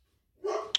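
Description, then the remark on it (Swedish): A single sharp dog bark rings out after a moment of quiet, short, with no one talking. “Det var en hund som blev alldeles till sig av den här beskrivningen.”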